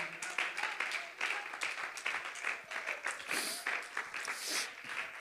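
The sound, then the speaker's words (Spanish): An audience at a morning worship service applauding the presence of God, a dense, sustained wash of many hands clapping together for several seconds, steady and fairly loud, with faint voices mixed into the crowd noise. “Si es tu deseo, hermano, aplaude la presencia de Dios en esta mañana.”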